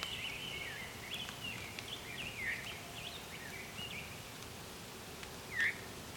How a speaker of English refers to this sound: Or actually, no, that was an orchard oriole. Interesting. Because it had that song where, yeah, it's kind of whistly, but it was more like a warbling vireo and it interrupted itself. So there's an orchard oriole here.